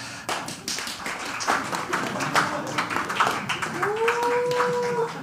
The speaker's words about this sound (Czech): Zkusíme si natrénovat váš potlesk. Zkuste mi zatleskat. Nejdřív začneme, eh, začneme jakoby jemně, eh, pomálu. Zkuste mi zatleskat, jako byste tleskali Gotwaldovi teď.